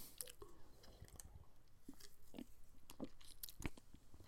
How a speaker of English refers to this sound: If you hear me pausing like this, just like that, I did a couple seconds ago. Um, I'm drinking Bud Light 24 ounce, so I haven't had a Bud Light in a while, and um, I might get a little buzz.